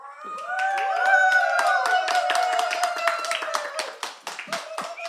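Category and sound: crowd, applause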